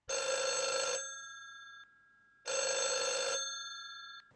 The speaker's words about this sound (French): Des sons que tu sais reconnaître, comme le téléphone.